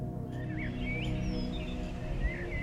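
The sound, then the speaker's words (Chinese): Forest ambience with birdsong: a few thin, high chirping calls drift over a steady, dense low hum that fills the background throughout, with no one speaking. “当我们进入 Ultraviolet，就像是迈入了时空穿越的隧道，森林、”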